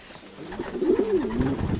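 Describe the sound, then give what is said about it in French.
Pigeons cooing, a low, soft warbling coo that rises and falls over a couple of seconds, with faint background noise and no talking. “Donc le pigeon a euh, un caractère inné, hein, qu'on appelle le sens de l'orientation.”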